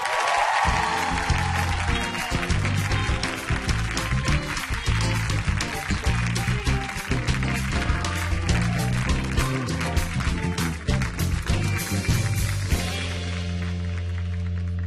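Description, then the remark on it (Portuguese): A large studio audience applauds and cheers loudly and continuously as a guest is introduced, the dense clapping layered over upbeat band music, with the applause thinning slightly in the final seconds as the music carries on. “Você trouxe torcida organizada? Eles se auto-organizaram.”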